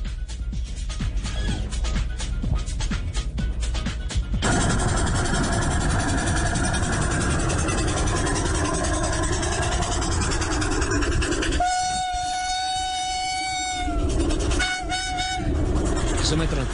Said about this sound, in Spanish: Eh, de la época del vapor a hoy hay mucha diferencia, pero hay un romanticismo grande, ese sonido del vapor.